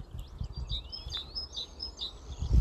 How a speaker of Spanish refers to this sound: No digo más tacos porque el pajarito este que estoy escuchando me está tranquilizando.